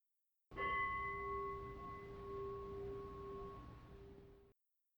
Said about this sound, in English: And we'll hit the bell to end the meditation